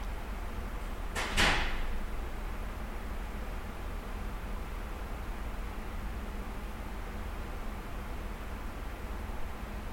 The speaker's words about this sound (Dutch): Ik pakte mijn opnameapparaat erbij en heb de stilte van het audioarchief proberen te vangen. Het enige hoorbare in deze opname is het sluiten van de deur van het archief en het ruisen en suizen van de klimaatregelaars.